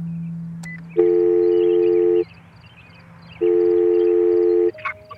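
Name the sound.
telephone call ringing tone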